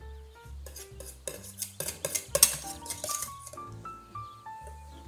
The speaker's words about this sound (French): Et là, j'ai préparé donc mon chinois, enfin ma passoire hein, en fer, surtout pas en plastique, sinon vous allez tout fondre. Et je vais filtrer mon caramel, tout simplement. Alors c'est parti, je filtre mon caramel.